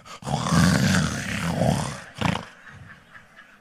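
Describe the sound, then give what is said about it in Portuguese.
A voice imitates a husband's loud snoring as he sleeps beside his wife: one long, rough, rumbling snore, then a shorter snort and a fainter raspy tail. “Aí tu olha para o teu marido roncando, o que, é que você sente por ele?”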